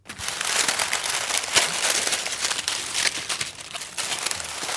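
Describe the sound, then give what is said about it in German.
Dry twigs of a large woven human-sized nest, about three meters across and lying on the parquet floor of a hospital chapel in Leverkusen-Opladen, Germany, rustle and crackle continuously, a dense, scratchy crinkling with small sharp snaps scattered throughout and no voices. “Das, was da raschelt, ist kein Vogelnest, sondern ein Menschennest.”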